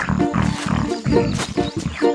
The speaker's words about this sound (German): Das Wildschwein.